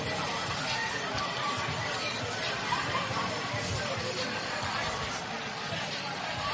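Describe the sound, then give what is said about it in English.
A dense, steady crowd chatter fills the air at a record-crowd high school football game at Hanceville, Hanceville Bulldogs against the Lawrence County Red Devils, many overlapping voices forming a constant babble with no single speaker standing out. “As we are crammed up here at the top of the box here at Hanceville, it is a record crowd.”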